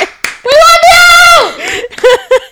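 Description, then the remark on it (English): A voice mimics an audience applauding before a questioner can finish their question, with a short burst of clapping-like smacks and a long rising cheer-like vocal sound, followed by a few quick breathy bursts, loud. “everyone will start applauding before they can finish their question.”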